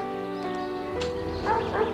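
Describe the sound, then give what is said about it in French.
Dogs bark a few times in quick succession over a steady droning background, the barks of moderate loudness, with no one speaking. “mais on lui envoie les chiens.”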